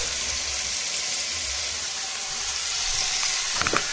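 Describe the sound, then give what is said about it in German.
Steady sizzling of food frying in a pan, a dense crackling hiss that holds throughout, with a few louder pops and clinks near the end. “Ihr hört, es brutschelt.”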